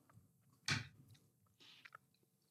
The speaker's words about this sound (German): hört überhaupt nicht mehr auf mit dem Essen. ich bin noch am Mümmeln.